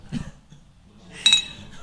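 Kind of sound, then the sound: household object, glasses clinking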